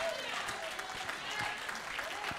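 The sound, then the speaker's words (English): An audience claps steadily, many hands blending into a dense, continuous patter of applause that holds at an even loudness throughout. “I'm not preaching that just so you can clap and get hyped”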